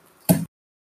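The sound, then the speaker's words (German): A single short, loud rip of a relatively large cardboard package being torn open, a quick scratchy burst that cuts off sharply into silence. “Ich muss es praktisch nur noch aufreißen und ähm, die letzten Klebestellen lösen.”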